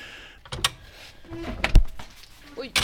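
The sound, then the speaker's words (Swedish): A dog's tail thumps against the microphone in a few loud, irregular knocks with muffled rustling between them. “Man hörde svansen smällde här mot mikrofonen.”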